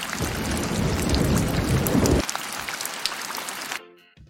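Heavy rain hisses steadily while a deep, loud thunder rumble rolls underneath for the first half. The rumble then drops away, leaving only rain, which cuts off abruptly just before the end.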